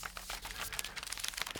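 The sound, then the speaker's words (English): Paper from a long list kept as a hard copy crinkles and rustles continuously, a dense crackling texture of sharp little crunches with no voices, fairly quiet and steady throughout. “So much paper.”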